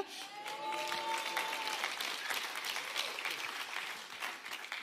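A crowd claps steadily in sustained applause for a person who has come up onto a stage, dense and fairly loud throughout, with a brief whistle-like tone near the start.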